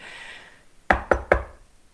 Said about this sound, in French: Je tends l'oreille. Quelqu'un vient de taper trois coups distincts à la porte.